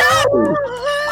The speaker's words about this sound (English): oh, there's a bird outside.